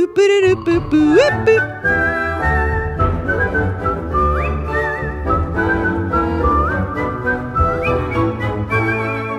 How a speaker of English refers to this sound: and I was just like, I couldn't, I could, I, well, for one thing, I don't, my range is weird. My whistling range is weird, and it's whatever.